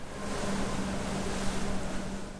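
A boat's engine drones steadily beneath a constant wash of water and wind rushing past as it heads out on the water past lonely beaches near Phuket, a continuous, fairly loud rumble with no voices.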